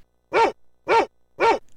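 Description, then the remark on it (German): A police protection dog barks three times in a steady, evenly spaced rhythm, each bark short and loud, with brief quiet gaps between them and no talking. “Der Schutzhund sollte wachsam sein und auch das Bellen ist im Polizeijob erwünscht.”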